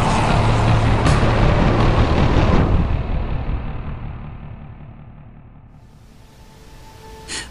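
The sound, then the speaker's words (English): A heavy armored car's engine roars loudly, then rumbles off as the car drives away carrying the Joker and his thugs, fading steadily until only a faint hum remains. No one speaks. “Batman can only watch as the Joker walks away, gets back into the armored car with his ghoulish thugs, and drives away.”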